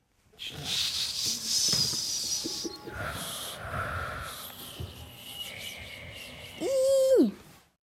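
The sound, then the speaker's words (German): Children's voices imitate a sound with breathy, hissing snores and rasping exhales, some airy like wind, ending in a sharp rising-and-falling squeak near the end. “Ah, das erste war eher so ein bisschen schlafen, so ein Mhm, so ein bisschen so ein fast schon Schnarchen. Zischen, in die Schnarch auch ein bisschen wie so Wind, fand ich.”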